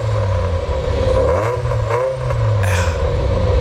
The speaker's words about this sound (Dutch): 3,1 liter. V8-motor. Naturally eh, aspirated. Ja. En turbo. echte kenners, het is de GTS-variant, ja, hè? Ja, ja, het is GTS.